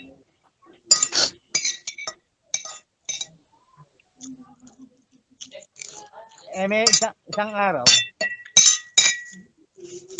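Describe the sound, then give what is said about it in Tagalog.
Cutlery and dishes clink repeatedly, with sharp scattered metallic taps and scrapes as someone eats pinakbet, while a person talks over and between the sounds. “sino kumakain? Ang ingay.”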